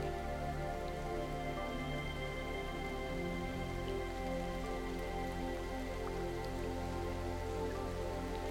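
Steady raindrops patter softly and continuously on a surface, a gentle even shower lasting throughout, with a sustained humming tonal drone underneath and no voices.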